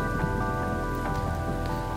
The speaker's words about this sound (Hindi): ये सब मैं सोच ही रहा था कि जोरों की बारिश फिर से शुरू हुई